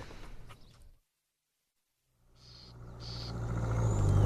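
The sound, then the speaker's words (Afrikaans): After a brief silence, the engine of a car driven by an old woman rumbles in and grows steadily louder as the vehicle drives closer, with a faint whine riding above the low, rough hum. “amper bly om die ou vrou aangery te sien kom.”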